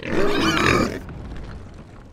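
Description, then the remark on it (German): A voice imitates a wild boar, letting out about a second of loud, rough, guttural grunting before falling silent, leaving only faint background noise. “Es war eine Wildschweinarmee eine fucking Wildschwein-Armee.”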